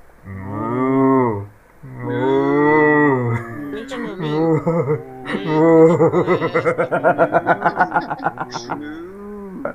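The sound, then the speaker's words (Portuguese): Two long, drawn-out moos, each a second or more, loud, apparently a human voice imitating a cow, followed by a burst of rhythmic laughter. “Mas o mugido foi pra cava mesmo, não foi pro Coringão.”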